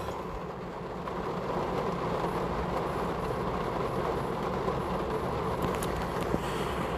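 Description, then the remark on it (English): Steady rain makes a continuous, dense hiss over a deep, constant rumble. It holds at an even loudness throughout, with no voices and no distinct individual drops. “Uh, well, at least you get a little ASMR segment with this rain.”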